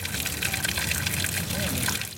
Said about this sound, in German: Aus 38 Wasserhähnen über 38 steinernen Waschbecken fließt warmes Thermalwasser heraus. Immer wieder kommen Leute und füllen sich Plastikflaschen damit auf.